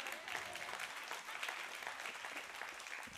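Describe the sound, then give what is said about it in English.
A crowd applauds steadily, a dense patter of many hands clapping at an even level from start to finish, with no speech above it. “You can clap, go ahead.”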